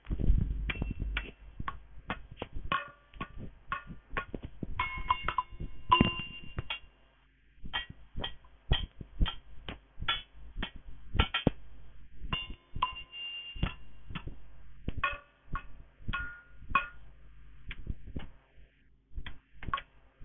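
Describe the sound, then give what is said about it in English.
Trophies being handled, giving off a steady stream of irregular metallic clinks and taps with brief ringing tones, some clustered quickly together, others spaced apart, with no talking. “And jetzt a clutching of the Pokale.”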